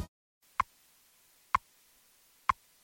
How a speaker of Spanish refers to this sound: El tic tac de reloj que escuchan indica que comienza. Radio Hora de 6 a 7 de la mañana con toda la actualidad de España y el mundo y como siempre la hora exacta minuto a minuto.